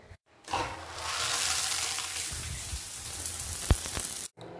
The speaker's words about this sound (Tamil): okay நம்ம இப்போ ஷவரை open பண்ணலாம்